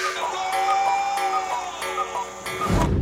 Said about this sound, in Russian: Тик-так говоришь.